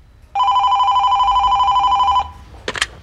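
A call to the Yle Archive: a single loud telephone ring with a rapid trilling buzz lasts about two seconds, then stops, followed by a brief clatter as the handset is picked up.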